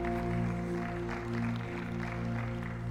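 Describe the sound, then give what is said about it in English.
An audience at a church worship service claps steadily for a group of children as they leave, a dense continuous patter of many hands blending with sustained musical tones playing underneath, with no talking. “We ought to give them a round of applause as they're leaving.”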